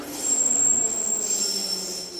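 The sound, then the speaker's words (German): A train's braking wheels squeal in a sustained, piercing high-pitched screech, shifting slightly in pitch over a steady rumbling rail noise, loud, with no voices. “Ist ja auch nervig, wenn man als Einziger so schief quietscht wie ein bremsender Zug.”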